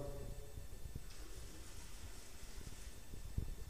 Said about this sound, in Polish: Tutaj jest łazienka. Woda.